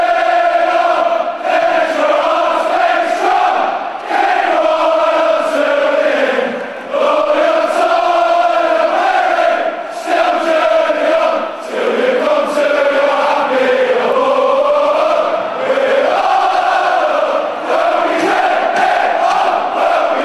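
A large crowd of Birmingham City football supporters sings the club's anthem in unison, slow, loud and sustained, with sweeping melodic lines that rise and fall and brief dips between phrases.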